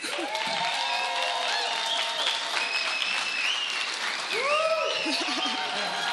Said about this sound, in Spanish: los puedo invitar a un aplauso para darle la bienvenida a la banda?